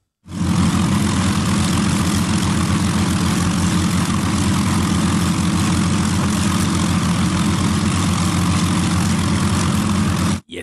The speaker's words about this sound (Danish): det vi hører her, det er lyden af en Heinkel 111.